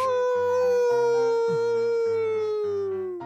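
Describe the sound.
A person imitates a wolf howl as the Big Bad Wolf, one of several random muffled horror sounds: one long, loud, sustained wail held for about three seconds. Its pitch slides slowly downward as it fades at the end. No other voices are heard.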